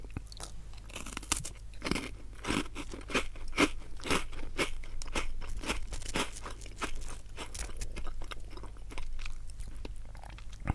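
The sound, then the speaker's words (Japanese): Crunchy chewing of a biscuit, a steady run of crisp bites and crackling mouth sounds repeating for about ten seconds, fairly loud, with a low hum underneath and no talking. “唐突に始まる咀嚼音 ASMR うん美味しいねこれ美味しいよね。”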